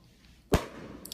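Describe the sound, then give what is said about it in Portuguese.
A single sharp firework bang bursts out, set off by a wizard called Tim, followed by a rumbling tail and a couple of faint crackles; no one speaks. “finalmente encontraram um mago que não parava de soltar fogos de artifício, chamado por alguns de.”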